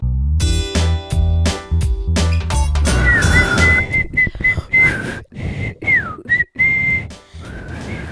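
Teenagers try to whistle, producing breathy, unsteady tones that waver, slide and break off amid lots of air noise, following a few seconds of louder, choppy harmonic sound at the start.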